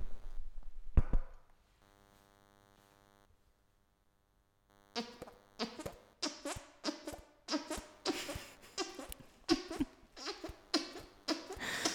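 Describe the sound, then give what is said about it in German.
After a brief thump and a faint hum, a rapid run of about a dozen loud, squelchy fart noises made with the hands bursts out in an uneven rhythm. “Ich kann sehr laut mit den Händen Furzgeräusche machen.”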